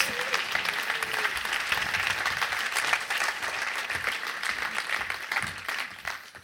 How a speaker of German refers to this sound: Geben wir denen einen Applaus.